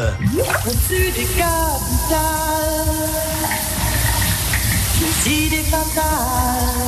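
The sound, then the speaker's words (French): A shower runs with a steady hiss of spraying water, continuous throughout, while a voice sings wordless, wavering notes over the rushing stream. “et enfin sous la douche”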